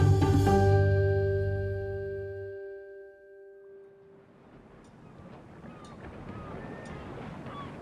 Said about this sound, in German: November 1990 in Hongkong. Auf einem Boot im Victoria Harbour liegt Bill Marriott auf einer Couch in seiner Kajüte und starrt an die Decke.